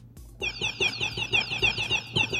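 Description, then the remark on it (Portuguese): Small birds twitter in a rapid, steady run of bright, high chirps, repeating several times a second for a couple of seconds at moderate loudness, with no voices. “Eu gostei desses passarinhos.”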